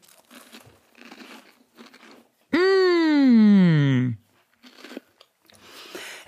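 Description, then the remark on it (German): Someone bites and crunches Manna wafer biscuits, five wafer layers with four layers of cream, in crisp, crackly bursts, broken by a long, loud 'mmm' of enjoyment that falls in pitch before the crunching resumes on a second wafer. “da habe ich jetzt ohne zu zögern das zweite hinterhergestopft.”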